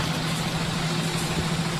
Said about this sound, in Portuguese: Passou um ônibus agora, já com a tarifa bem grande, né?